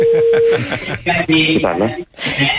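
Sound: telephone hung up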